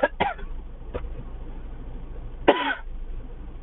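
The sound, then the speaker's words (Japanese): A person coughs because something caught in the throat: a few sharp coughs, a quick cluster of two or three at the start, a single one a moment later, then one more harsh cough after a pause, with a low steady hum beneath. “やばい、冷水シャワーを浴びてますって話しながら、咳を込んだら 風邪ひいてるとじがしたれるんですよね。”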